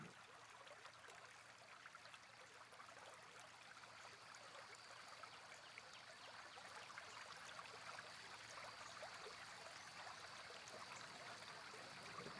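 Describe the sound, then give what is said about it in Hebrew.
A stream flows steadily with a continuous, even rush of water and fine trickling detail, soft and unbroken throughout, with no voices present. “נשים לנו קצת צלילים של מים, של זרימה, קצת סיפורים, קצת שלווה.”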